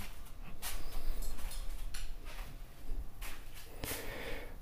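A chair scrapes and bumps in a living room in a few short, sharp knocks and shuffles, set against a steady rustling room noise with no talking.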